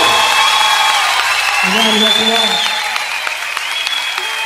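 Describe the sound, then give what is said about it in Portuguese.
A loud, sustained burst of audience applause fills the space, dense clapping mixed with shouted cheers and a few high whistles rising over the crowd throughout. “Quem gostou faz barulho aí!”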